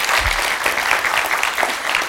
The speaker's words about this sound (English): Uh, but you're doing a fantastic job, by the way. Can we give these guys a big, uh, a big clap for doing so good?